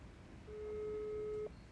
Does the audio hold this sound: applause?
no